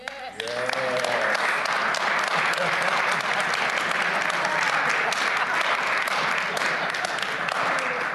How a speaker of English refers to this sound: Praise God. Give him a hand. Give him a hand. oh, that was amazing. That was awesome.